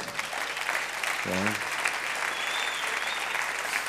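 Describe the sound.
Steady, dense applause from a crowd fills the whole stretch, with a brief voice or cheer rising over it near the start. The clapping is loud and sustained throughout.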